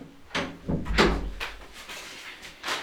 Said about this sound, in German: Ich mache mal kurz hier die Tür zu, damit es auch besseren Klang hat.